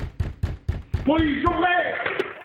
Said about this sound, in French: Le 13 novembre 1986, les gendarmes frappent à la porte